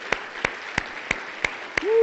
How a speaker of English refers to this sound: Now give the Lord your hand clap this morning because He's a good God.